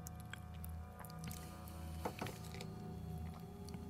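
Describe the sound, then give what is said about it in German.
Quiet, close-up wet mouth sounds: a sip of water followed by small squishy clicks and smacks, with a couple of sharper wet pops near the middle, all without speech. “Ein bisschen Wasser wird meinen Mundraum anfeuchten.”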